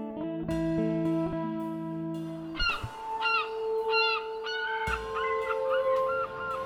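A seagull cries out in the morning in a series of loud, harsh, repeated calls close by, following a few seconds of steady, sustained tones at the start.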